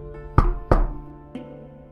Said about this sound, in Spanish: En su lugar, la puerta de mi oficina. Golpearon dos veces.